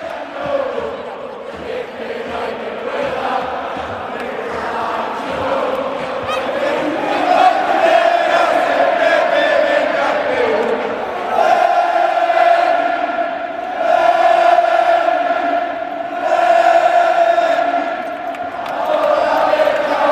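A huge football stadium crowd at Real Betis's Benito Villamarín stadium chants in unison during a La Liga home match against Villarreal, with Betis leading 1–0. Thousands of voices rise and swell in waves with sustained sung notes and bursts of cheering, loud and continuous throughout.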